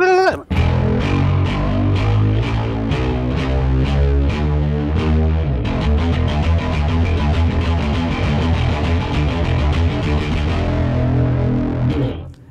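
A bass guitar played through a chorus effect, with a thick, shimmering tone. Quick, busy notes run steadily and loudly for about twelve seconds, with no one speaking.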